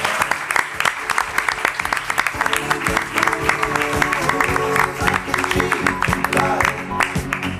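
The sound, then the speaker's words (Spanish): An audience applauds loudly and steadily, dense rapid clapping filling the whole stretch without pause, with some sustained tones humming underneath partway through. “Así que también un aplauso muy fuerte para él.”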